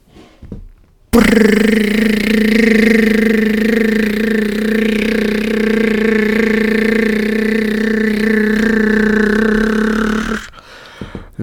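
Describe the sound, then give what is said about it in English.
A voice imitates a phone buzzing with constant notifications, holding one loud, steady, droning hum for about nine seconds without a break, then cutting off abruptly into near silence. “That's what my phone fucking sounds like now, dude.”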